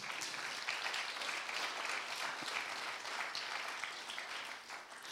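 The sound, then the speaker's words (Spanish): An audience applauds the Lord, many hands clapping in a dense, crackling wash that holds at an even level for several seconds before easing slightly at the end. “Dele un aplauso al Señor si lo cree.”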